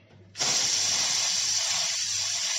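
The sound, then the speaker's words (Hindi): A pressure cooker cooking khichdi on a gas stove whistles, bursting on abruptly and continuing as a loud, steady, high-pitched hiss of escaping steam, holding nearly constant without a break. No one speaks. “mummy कितनी सीटी लगने दो खिचड़ी के लिए दो सीटी काफी है बेटा फिर गैस को दो मिनट के लिए सिम पे रख देना”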